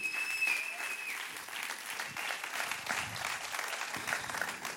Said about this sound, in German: Und gehen wir doch mal innen daheim und ich hoffe, Sie werden es hören. Ein riesen Applaus bei euch ganz herzlich begrüßen, die daheim online dabei seid.